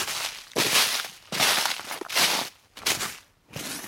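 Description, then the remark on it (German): Footsteps crunch steadily over frozen, snowy forest ground on a walk in the Eifel, each step a loud, gritty burst in an even walking rhythm. About five crunching steps, with no voices. “Ihr hört es vielleicht so ein bisschen knistern hier.”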